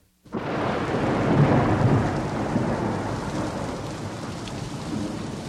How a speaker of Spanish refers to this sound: Afuera continuaba lloviendo y los cinco hombres escucharon el caer de la lluvia sin volver a dirigirse la palabra sumidos cada uno de ellos en su propia fatiga y en sus propios pensamientos.